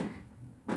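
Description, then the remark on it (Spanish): A cupboard door is banged by a cat: a dull wooden knock followed by a second, sharper thud near the end, moderately loud, with no voices. “Si escuchan eso es el gato este”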